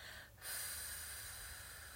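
A slow, steady exhalation during a deep-breathing exercise, soft breathy airflow held evenly for about a second and a half after a brief pause, with no talking.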